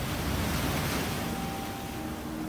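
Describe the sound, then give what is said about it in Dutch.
Loud, churning Pacific Ocean surf on the shore at the border between San Diego and Tijuana washes in a continuous roar, waves breaking with a steady wash of spray and a touch of wind, and no voices. “langs de woest kolkende golven van de Stille Oceaan, aan de grens tussen San Diego en Tijuana.”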